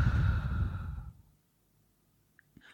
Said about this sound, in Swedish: Om man andas in på tre, och då, då passar mig på att räkna också så att man får en liten distraktion. Just det. Eh, så då andas man in på tre och andas ut på fem.